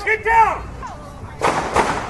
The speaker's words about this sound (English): just got to be careful here with some gunshots. Excuse us, excuse us. It sounds like gunshots. I'll let you know what this is. These seem to be gunshots.